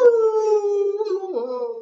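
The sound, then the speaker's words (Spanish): A friendly dog that came up to the recordings looking for food howls in one long, steady, fairly loud note that slides slightly downward, then breaks and rises into a second wavering tone near the end. No one speaks. “bueno, pues de repente se acercaba a las grabaciones y bueno, andaba meando por supuesto, buscando algo de alimento.”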